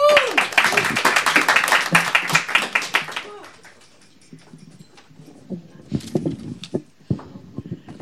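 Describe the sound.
Loud audience applause, a dense rush of many hands clapping for about three seconds, then it drops away to scattered quieter clicks and faint voices; an audience applauding a performer they have just listened to.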